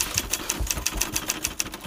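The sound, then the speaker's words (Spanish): Quick, steady clacking of a typewriter, about a dozen crisp key strikes in an even rhythm, moderately loud with a faint mechanical hum underneath and no voices. “O eso es lo que escribió la prensa de entonces utilizando esta máquina de escribir en concreto”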